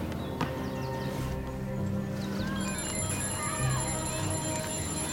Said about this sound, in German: Mikes Handy klingelt.